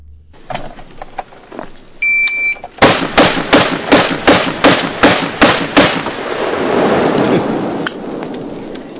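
A rapid string of about ten loud, booming .50 caliber Barrett rifle shots fired in a V drill, evenly spaced, then a long rumbling echo that fades out. Faint clicks and handling noises come before the shots.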